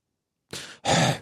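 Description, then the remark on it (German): A voice imitates heavy, winded breathing after climbing very high stairs: a short raspy inhale followed by a louder, longer exhale, alone after a moment of silence. “hat schweres Atmen. Das Klingt wie Darth Vader.”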